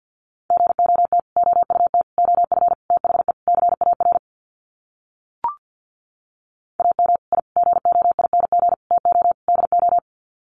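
Rapid Morse code at 50 words per minute sending sets of five words: a steady mid-pitched tone keyed on and off in quick bursts, two runs of several seconds split by a short pause with a single click.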